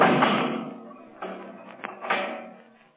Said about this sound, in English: You can lock that steel door, Kelvin. But somehow the Shadow will still get out.